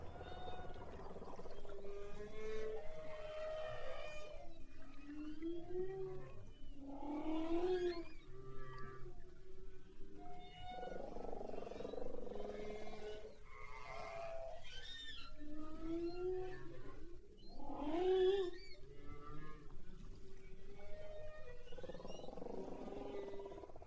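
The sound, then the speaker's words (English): Humpback whale song recorded underwater: long, sliding moans and higher whoops and squeals rise and fall in repeating phrases, loud and continuous over a steady hissing ocean background, with no talking. “Let's listen to this recording of the humpback whale.”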